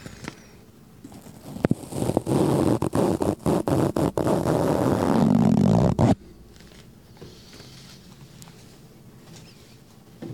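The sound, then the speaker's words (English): A balloon is blown up too big in a loud, breathy rush lasting several seconds, broken by crackly rubber squeaks and stretching creaks, then stops abruptly without popping, leaving only faint background hiss. “That's uh, blowing up a balloon too big.”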